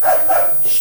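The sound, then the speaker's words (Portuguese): A dog barks twice in quick succession, sharp, followed by a softer trailing yip, with no one speaking over it; the dog is in a studio during a program. “Isso é meu cachorro que o veio cachorro, junto.”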